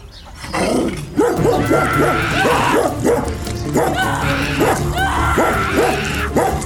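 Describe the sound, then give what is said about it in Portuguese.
A dog charging toward a boy barks furiously in a rapid, unbroken volley of sharp, loud barks lasting the whole time, aggressive, with a few higher yelps mixed in. “Um cão disparou na direção de Joseph Meister, latindo furiosamente.”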